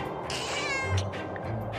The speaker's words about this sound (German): Was kann die Katze denn so? Miauen.